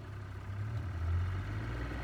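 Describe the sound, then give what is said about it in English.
A small outboard boat engine drones steadily on a trip upriver from Chirundu, a loud, even low-pitched hum with a faint higher whine, holding constant throughout with no voices. “I shouted over the roar of the engine, are you sure we should be going so far?”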